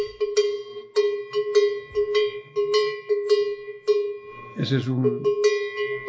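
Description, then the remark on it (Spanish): A livestock bell of the kind hung on billy goats and castrated males that accompany a goat herd is shaken, clanking in a quick, uneven rhythm with a ringing metallic tone, while a man briefly speaks over it near the end. “esos se los ponemos a los machos cabríos, que siempre llevamos machos, capones en el ganado”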